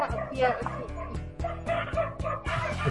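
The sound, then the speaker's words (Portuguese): Dogs bark rapidly and repeatedly in loud, overlapping bursts, with agitated yips and whines mixed in, as the dogs fight each other. “Enquanto, enquanto os cachorros brigam aí, acho que eles não ah, concordam não, hein?”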